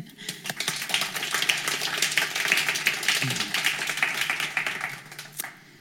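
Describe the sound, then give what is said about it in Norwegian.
An audience applauds steadily for several seconds, a dense, bright patter of many hands clapping at once that holds fairly loud and even before tapering off at the end. “Da kan vi en nok en applaus.”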